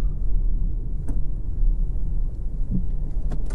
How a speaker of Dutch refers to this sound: En het is verkeerschaos hier aan school.